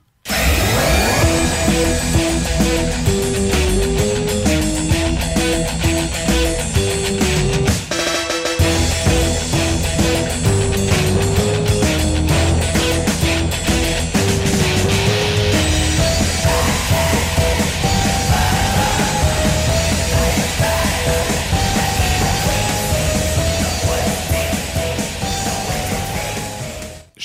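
A loud, dense music track from a new album released this month plays throughout, with heavy distorted instrumentation filling the whole range and a steady melodic line on top, briefly dropping out for a moment before surging back.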